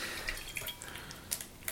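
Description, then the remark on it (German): Water sounds of a glass being rinsed with water between whiskies: a steady wet swish broken by several small splashes and drips, with no one talking. “Ja, also zwischen den Whiskys kann das durchaus Sinn machen, ja, dass man äh, das Glas mit Wasser ausspült.”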